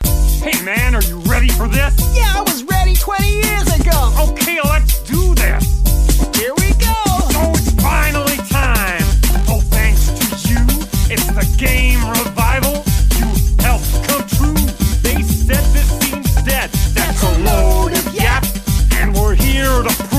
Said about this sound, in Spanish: pues con Yuka Laili, como son los mismos creadores de los ex de Rare, pues han hecho un rap con esto, con este mm, lagarto y murciélago que está muy, muy chulo.